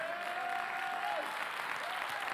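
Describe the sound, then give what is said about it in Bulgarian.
An audience claps steadily in a dense, unbroken wash of applause, with a thin whistling tone sliding faintly through it at times. “Ръкопляскаш, като че не знаеш, че пророкувам на теб сега.”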